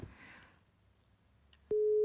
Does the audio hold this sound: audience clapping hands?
no